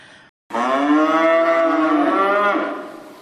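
A single cow moos loudly, one long sustained low call lasting about three seconds after a brief pause, fading slightly at the end.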